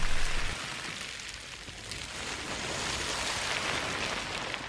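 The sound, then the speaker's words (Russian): A dense, continuous rush of rattling, shifting plastic waste collected from a single beach, mimicking the wash of ocean surf, louder at the very start and then steady, with no voices. “И, кстати, это не звуки океана, это звуки пластика, который команда Less Plastic собрала на одном пляже, чтобы мы с вами услышали, как может звучать океан для будущих поколений.”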